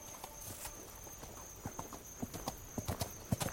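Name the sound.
horse hooves clip-clopping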